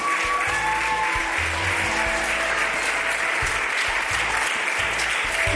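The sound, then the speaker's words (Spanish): A church audience applauding steadily, a dense, continuous wash of many hands clapping without pause for several seconds. “Dale un fuerte aplauso, dale, dale, dale, dale.”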